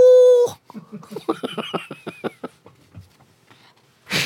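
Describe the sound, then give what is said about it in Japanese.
A voice produces a short, sustained high-pitched nasal tone imitating a husband's snoring, followed by a run of rhythmic laughter and a brief breathy hiss at the end. “えー、高い声のいびきってある”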